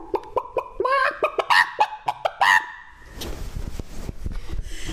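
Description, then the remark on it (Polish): A voice imitates a hen clucking: a quick series of sharp, nasal clucks rising into a few drawn-out squawks, fairly loud, then trailing into breathy laughter and rustling. “chciałabym powiedzieć, że to już koniec, ale to nie jest koniec, bo mm. nam jeszcze kura.”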